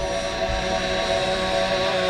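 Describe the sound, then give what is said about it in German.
A police helicopter searching at night for a bank robber: a steady, loud engine drone with a slightly whining tone, holding a constant level throughout with no voices. “Ist doch klar, dass die Polizei den Bankräuber mit einem Hubschrauber sucht.”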